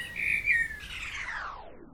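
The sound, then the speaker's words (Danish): Bright bird chirps in a garden ring out, then slide into a long descending whistle, clear for about two seconds with no talking. “Det kan godt være, at biodiversiteten den har det svært, men kan det virkelig passe, at alle fuglene pludselig er forsvundet fra haven?”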